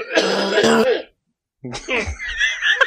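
A loud, close burst of coughing and throat clearing, then a brief pause before more raspy, hacking coughs mixed with vocal sounds.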